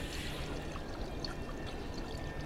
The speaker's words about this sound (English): It's a noise unlike any you've ever heard before. It is something like the noise that water makes when it's swirling down a drain, but very deep and reverberating.